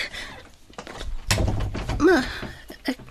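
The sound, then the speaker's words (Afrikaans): A man shuts a door in someone's face with a single muffled thud, not a hard slam, surrounded by brief bits of someone talking. “en net daar klap hy die deur toe in my gesig.”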